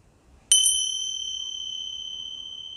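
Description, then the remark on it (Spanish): A small meditation bell is struck once during a guided meditation, giving a bright, high, pure ring that sustains and slowly fades over a few seconds, with no voices present. “al sonido de la campanita.”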